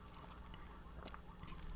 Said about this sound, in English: So let me just take a little sip sip of my drink and we're going to hop into it.